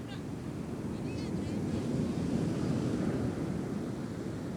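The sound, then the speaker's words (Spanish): A steady, continuous wash of ocean surf rumbles throughout, a dense rushing roar with no distinct pauses between waves, with a few faint high chirps briefly near the start. “Siente el sonido de las olas del mar.”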